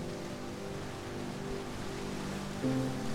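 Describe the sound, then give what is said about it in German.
A steady wash of ocean surf against a shore, fairly soft and continuous, blended with a low sustained tonal drone; no one speaks. “Höre die Wellen, wie sie rhythmisch an den Strand heranbranden und sich dann wieder sanft zurückziehen.”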